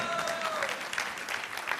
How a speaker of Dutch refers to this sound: Eh, dank jullie wel. Applaus.